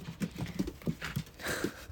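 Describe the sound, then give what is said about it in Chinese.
A small dog patters around, its quick, light footfalls tapping out an uneven rhythm of soft thuds over about two seconds, with faint breathy noise mixed in. “现在一只小狗子在我面前转悠着。”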